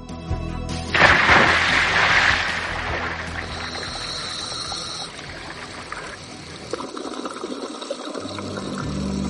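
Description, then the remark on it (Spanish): A sudden loud splash as a diver jumps into the sea at the start of a dive, followed by a rushing, bubbling wash that fades into muffled underwater churning and trickling sounds. “Todo listo para la inmersión, un ok y saltamos al agua.”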